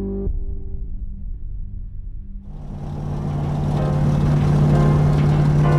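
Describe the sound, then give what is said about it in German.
A car engine rumbles low at first, then swells as it accelerates and drives past along 14th Street in San Bernardino with two men inside, the steady hum growing louder and brighter with road noise. “Ein Auto fährt die 14th Street in San Bernardino entlang.”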